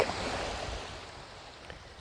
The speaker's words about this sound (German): Und du hörst schon die Wellen. Es wird lauter.